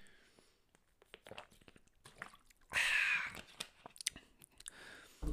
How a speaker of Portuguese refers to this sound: E pá, tenho que dar aqui um gol d'água.